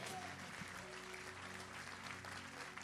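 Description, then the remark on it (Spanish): Strong, dense applause from a crowd during a sermon, called for by the preacher: a steady wash of clapping that stays loud for the full three seconds, with a low sustained musical tone humming underneath. “Dale un aplauso fuerte.”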